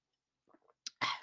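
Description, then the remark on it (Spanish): A short sip of coffee from a cup: a soft faint slurp, a brief click, then a louder breathy swallow and exhale. No talking. “Espéreme, le voy a dar un trago a mi café.”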